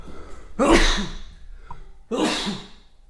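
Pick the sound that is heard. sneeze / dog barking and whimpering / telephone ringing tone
sneeze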